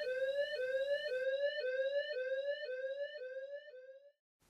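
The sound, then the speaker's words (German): A home burglar alarm blares in the evening with a fast, repeating electronic whoop, rising tone after tone about twice a second, loud with no voices, then cuts off abruptly; it was set off by the neighbour's cat. “Bis zu dem Abend, als die Alarmanlage ansprang.”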